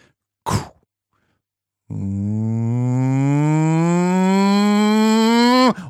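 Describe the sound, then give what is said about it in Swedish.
A voice imitates jet engines revving before takeoff: a loud, sustained buzzing drone that climbs steadily in pitch for about four seconds, preceded by a short sharp breath-like burst. “Och det där när motorerna varvas precis innan planet börjar rulla.”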